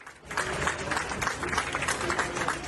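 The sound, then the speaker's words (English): Passengers aboard a LATAM plane clapping steadily for the flight crew after an emergency landing in Panama, a dense, sustained round of applause with a faint murmur of voices mixed in, even in loudness. “Passengers on board applauded the flight crew for landing the plane safely and expressing their gratitude again in the airport.”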